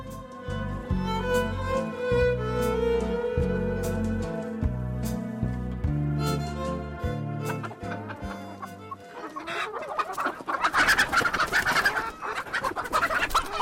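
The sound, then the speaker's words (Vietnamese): A hen cackles loudly and rapidly after laying a large egg, in an excited burst that fills the last few seconds after a steady, tonal musical stretch. “Ôi, trứng to quá, con gà của mẹ giỏi quá.”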